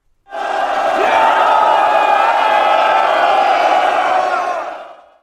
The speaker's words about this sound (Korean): 적들이 밤을 타서 한꺼번에 고함을 쳤는데 그 소리가 천지를 진동하였다. 성 안의 군사들이 고함 소리에 크게 놀라 위축되었다.